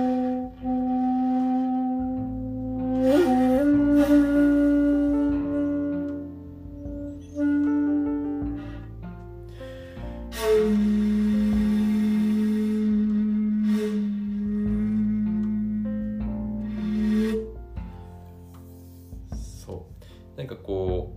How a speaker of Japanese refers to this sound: でそれに比べて僕の吹いてるホッチクというのはですねこうザラザラっとした音こんな感じになってます。